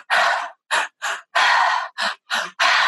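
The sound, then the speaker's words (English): Loud, forceful holotropic breathwork breathing in a steady rhythm: two quick sharp inhales, then a longer rushing exhale, the pattern repeating with no talking. “It's like taking LSD or mushrooms, but taking zero drugs and using your breath. It's in, in, out.”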